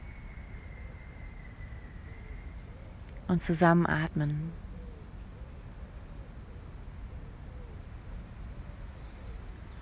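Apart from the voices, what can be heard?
forest ambience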